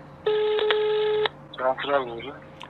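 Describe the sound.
A steady electronic telephone tone sounds for about a second while calling the Istanbul Metropolitan Municipality (İBB) building, a single flat pitch with harmonics, then cuts off and a person begins speaking.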